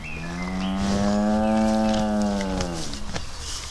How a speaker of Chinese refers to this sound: 呃，听到牛叫声了吗？门外那头牛应该是他老人家的坐骑